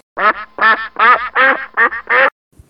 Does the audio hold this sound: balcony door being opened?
no